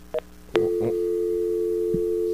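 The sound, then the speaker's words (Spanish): A brief click and a short burst of noise, then a steady, unbroken telephone tone that hums on at an even pitch after the call drops, with no voices. “bendito, se nos cayó, la llamada. Se cayó la llamada.”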